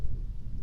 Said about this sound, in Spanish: Por ahí se va a escuchar un trueno ahorita.